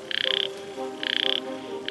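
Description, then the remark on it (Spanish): A yellow-legged frog, a species found only in the mountains of California, croaks in two short bursts of rapid, buzzy pulses, each under half a second with a brief pause between, heard clearly over a faint background hum. “Hola queridos exploradores, ¿están listos para sumergirse en el misterioso mundo de las ranas de patas amarillas con nosotros?”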